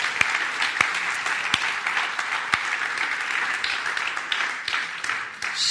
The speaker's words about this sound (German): Und hey, lasst uns ihnen einen fetten Applaus geben, ihnen Danke sagen, dass sie es getan hat. Hammer.